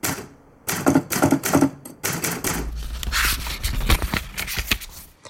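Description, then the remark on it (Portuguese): Rapid typewriter keystrokes clatter in uneven bursts, sharp mechanical clicks with occasional heavier thunks and a low rumble underneath, with no one speaking. “Máquina de inscrever.”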